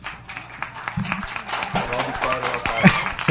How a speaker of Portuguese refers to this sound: As palmas hoje estão bem. Rapaz, essas palmas hoje, pelo, pelo amor de Deus. Estou mais preguiçosas do que o habitual. Essas são as palmas de segunda-feira. As palmas da segunda-feira.